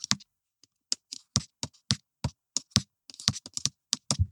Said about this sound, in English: Let me see if I can, I can kind of replicate it. Let me see if you might not hear a chance, but my audience might. I'm going to tap my computer.